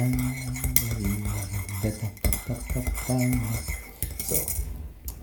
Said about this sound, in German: So, mal ein bisschen rühren, weil das noch das richtig aufgelöst hat.